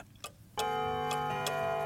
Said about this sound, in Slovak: Kukučkové hodiny odbijú 8 hodín a dvere na kuchyni sa otvoria.